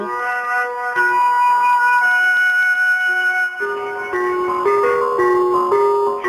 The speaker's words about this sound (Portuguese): O que o carro de gás que passa na minha rua tem a ver com o aquecimento dos países do norte?